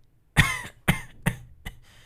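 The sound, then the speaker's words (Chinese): A series of four harsh coughs coming from outside, along with footsteps, evenly spaced about half a second apart, each one a little weaker than the last, with no one speaking. “就在这时，外头却传来一阵脚步子和咳嗽声。”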